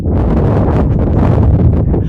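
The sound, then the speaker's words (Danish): Loud, blustery wind buffets the microphone in a continuous rumbling roar, with low-frequency thumps and gusts swelling throughout, no voices heard. “Øhm, Sikke en vind.”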